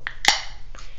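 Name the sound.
drink can being opened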